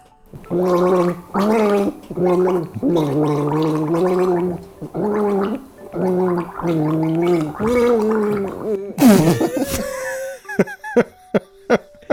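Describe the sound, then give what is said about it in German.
Someone gargles a tune, the watery warble rising and falling in phrased notes for about nine seconds, then breaks off into a sputter and a few short, choppy gurgles. “Dann wollen wir mal nochmal gurgeln.”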